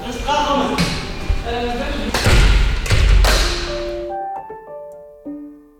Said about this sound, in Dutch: Ze aaien de honden nog voor een laatste keer over de neus, voor ze verdwijnen achter een deur, die onverbiddelijk weer op slot gedraaid wordt.